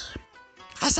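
A single sharp, loud sneeze bursts out at the end after a short stretch of muffled, quiet sounds, its breathy noise spreading across high and low pitches.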